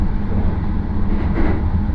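A steady low rumble of the rapid train Marine Liner No. 40 on the Yosan Line, running from Takamatsu to Okayama, heard from inside the carriage: a continuous droning roar with a faint hiss and slight swelling, no voices.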